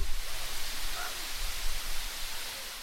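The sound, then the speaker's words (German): A steady, broad rush of a waterfall in a cove enclosed by high rocks at Lindefellow roars without pause, dense and even across the whole stretch, with no voices and only faint shifts in its churning texture. “Der Wasserfall ist die Sehenswürdigkeit von Lindefellow”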